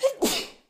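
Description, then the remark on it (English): A single sharp sneeze, fairly loud, with a short intake followed by a bright, breathy burst that fades quickly. No talking is heard. “bless you.”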